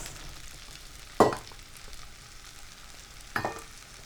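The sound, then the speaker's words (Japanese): Chicken thigh pieces, cut up beforehand, being added to a pan and frying: a steady crackling sizzle with two louder hissing bursts as pieces hit the hot oil. No one speaks. “えっと鶏ももですね先ほど切った鶏もも入れます”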